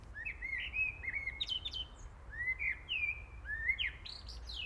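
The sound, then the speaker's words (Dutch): Birds chirping and warbling in a lively spring chorus, with repeated rising whistled phrases over a soft, steady outdoor background hum; no voices. “Maar je hoort het omheen. het is lente.”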